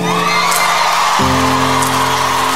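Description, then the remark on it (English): A loud concert crowd in Austin roars, cheers and whoops continuously, with a couple of sharp high whoops cutting through and a sustained musical tone droning underneath. “Make some noise, Austin.”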